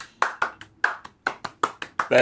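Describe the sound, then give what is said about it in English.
Gentle hand clapping by a person clapping in a circle as a round of applause: about eight soft, separate claps in a loose, slightly uneven rhythm, ending with a brief murmur of voice. “is me uh, gently clapping in a circle because that is a round of applause.”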